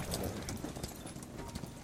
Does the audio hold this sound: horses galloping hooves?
yes